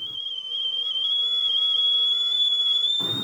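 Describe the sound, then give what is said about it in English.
A stove kettle whistles in one steady, piercing high tone that holds for about three seconds and climbs slightly in pitch at the end, with a faint harmonic above it and a brief hiss of steam. “Oh, like an actual stove kettle. Yeah, and the uh, the steam coming out.”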